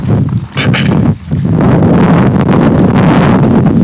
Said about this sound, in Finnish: Nyt tuli myrsky.